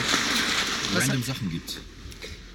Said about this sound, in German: Das war das Geräusch einer Pfütze, in der wir mit diesem Auto stehen.